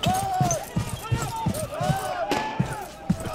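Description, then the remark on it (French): Heavy footsteps of police thud in a steady, quick rhythm in the middle of the night at a tent camp, with light metallic clinking mixed in and voices talking underneath. “Soudain, au cœur de la nuit, des voix, des cliquetis, des bruits de pas lourds les tirèrent de leur sommeil.”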